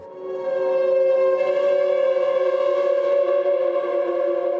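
A long, steady screeching squeal of a chair pushed across the floor as someone sits down rings out loudly for several seconds, smeared by heavy echoing reverb in a resonant room.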